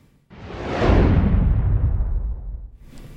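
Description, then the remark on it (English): A single loud whoosh transition effect marking a cut to another section sweeps in abruptly, a broad rushing swell that peaks early and slowly fades over a few seconds with a deep rumbling tail, heard alone without any talking. “Let's do a little whoosh sound. Let's cut this into another section here.”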